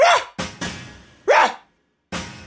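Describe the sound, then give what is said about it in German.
A man's voice imitates a dog, giving short harsh barks in separate bursts with growly, breathy sounds in between, fairly loud, with brief pauses between the outbursts. “sagt nichts, redet nicht, fragt nicht, sondern schlägt die Zähne zusammen, reißt die Lippen hoch und bellt und knurrt.”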